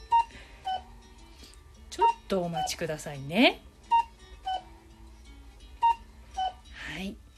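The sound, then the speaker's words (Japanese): A clock's electronic chime beeps in repeated pairs of clear tones, fairly loud, recurring every second or two while a woman speaks briefly between the beeps. “うん、結構最近はねあ格好時計が すいません”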